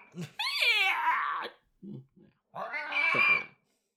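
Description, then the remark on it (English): A person imitates a raptor's call: a loud, shrill screech sliding downward, a couple of short throaty grunts, then a second rasping shriek, with no other talking. “raptor yeah. noise is like. Ah!”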